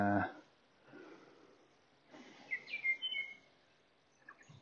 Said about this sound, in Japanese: 風が抜ける音聞こえるでしょうか。あとちょっと野鳥の声が近いかもしれない。こっちの方って野鳥も多くて